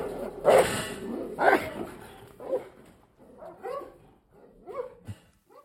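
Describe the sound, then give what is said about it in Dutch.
A large police dog, baring its teeth on command, lets out two loud, sharp barks about a second apart, then trails off into quieter growling and whining sounds. “Hij springt zonder moeite op een rolcontainer die tot mijn borstkas reikt en ontbloot dan zijn tanden op commando.”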